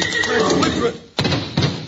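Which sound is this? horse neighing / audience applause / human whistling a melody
horse neighing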